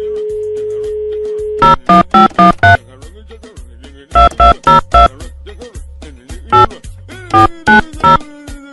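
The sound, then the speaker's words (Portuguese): A telephone tone sounds while redialing a motel's phone number that is said not to exist, in loud, clipped electronic bursts, clustered in quick groups of about four and repeated three times with short gaps, with no voices over it. “Esse número de telefone não existe. Como é que não existe? Deixa eu tentar de novo.”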